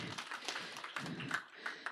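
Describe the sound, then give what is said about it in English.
A crowd claps together for ladies who read the book of Nehemiah, a steady, dense patter of overlapping hand claps, moderately quiet, continuing throughout without any speech. “So we are going to start about okay, they deserve a clap. Go for it today.”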